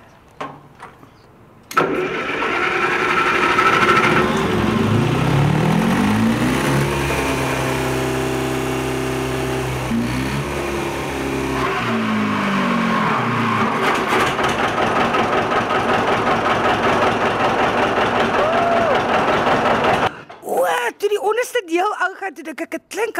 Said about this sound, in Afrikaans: Maar hy't 'n vier silinder petrol enjinjie om die groot enjin te start. 3 en 'n half ton dis 'n klein enjintjie wat nou ons gaan hom nou start. Dan gaan ons hom gebruik om die groot enjin wat hier onder lê te start.